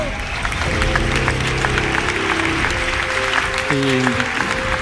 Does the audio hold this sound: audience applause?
yes